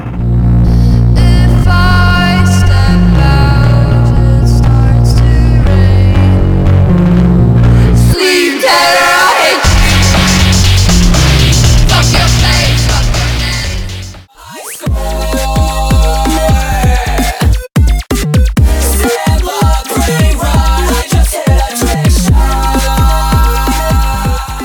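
A loud, dense electronic music track plays with heavy sustained bass and layered tones, shifting between sections with a few abrupt brief cutouts; no one speaks over it.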